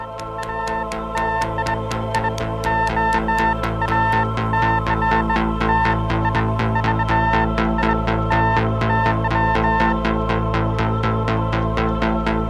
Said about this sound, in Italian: Il battito del Geiger la radioattività scandita dall'alfabeto Morse.